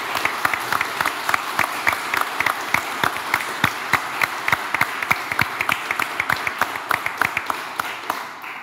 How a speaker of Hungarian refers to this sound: Úgyhogy azt szeretném kérni, hogy itt a teremben ülök egy hatalmas tapsal jutalmazzuk az előválasztás összes önkéntesét és összes megvalósítóját.